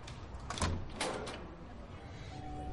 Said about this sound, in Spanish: Se dirige a una casa. Una mujer rubia treintañera abre la puerta.